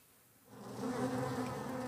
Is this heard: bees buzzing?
yes